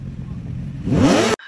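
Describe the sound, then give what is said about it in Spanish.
A motorcycle engine revs hard, its whine climbing steeply in pitch over a low idle rumble before cutting off abruptly, loud. “Ah, me valen verga las motos.”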